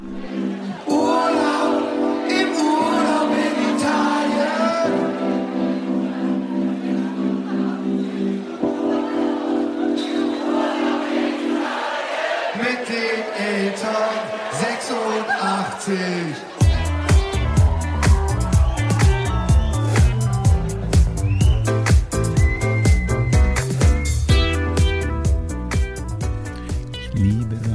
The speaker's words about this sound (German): das ist so geile 70er Jahre, Funk.